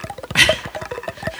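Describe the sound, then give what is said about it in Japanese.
Quick, rhythmic rasping strokes as a bamboo flute is scraped along its thread-wrapped part like a guiro, a steady ratchety pattern with a brighter, louder scrape partway through. “あの塔が巻いてある笛をこうやってこす”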